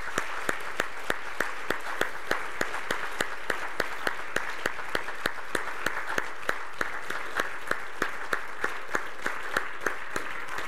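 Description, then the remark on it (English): An audience gives the Lord a round of applause for his faithfulness to three people, applauding steadily for about ten seconds, a dense crackle of many hands clapping at an even level with no voices standing out. “Let's give the Lord a round of applause for his faithfulness to these three folks.”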